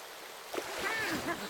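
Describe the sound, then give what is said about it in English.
Churning deep water with a soft splash about halfway through as a dragon jumps in, followed by continuous sloshing and gurgling as it swims about, with faint murmuring voices in the background. “Oh, he jumped in! Everyone, keep calm. Now, I don't know if you know this about dragons, but they are rather good swimmers.”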